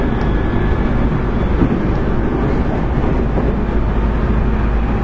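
Steady, loud low rumble of a JR 811 series electric train running on a rapid service from Orio to Kashii, heard from inside the car as a constant droning roar with no pauses and no voices.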